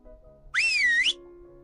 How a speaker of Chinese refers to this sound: “那太好了。”白日梦先生说着，把两个手指伸进了嘴里，吹出了杰克有生以来听到的最响亮的口哨声。